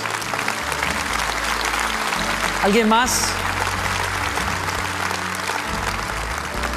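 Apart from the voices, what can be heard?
audience applauding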